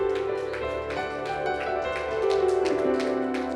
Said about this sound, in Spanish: Un fuerte aplauso al Señor, hermanos.